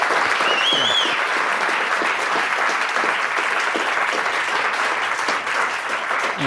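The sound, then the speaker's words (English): Sustained audience applause in New York, a dense steady wash of many hands clapping at a loud, even level for several seconds, with a brief whistle or cheer rising near the start. “Oh, yeah, clap. New York, give them a shout out.”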